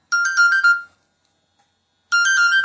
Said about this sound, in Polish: tym momencie telefon wibruje raz, bardzo długo. Melodyka jest odtwarzana. Ja tu troszkę zasłonię głośniki, żeby Was nie ogłuszała. Y, wibracja się nie powtarza. Wibracja jest tylko jedna, za to bardzo długa.